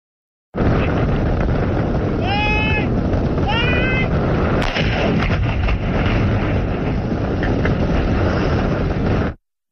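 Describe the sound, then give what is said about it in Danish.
Strong wind roars steadily over the microphone as a mine explosion cracks sharply midway, followed by a fainter second crack; brief high tonal calls sound a little earlier. A British bomb disposal squad is detonating a German World War II anti-tank mine on the Channel Island of Guernsey. “Ja, det vi hørte her i blæsten, det var en britisk sprængningskommando på kanaløen Guernsey, der springer en tysk anti-tankmine fra 2. verdenskrig i luften.”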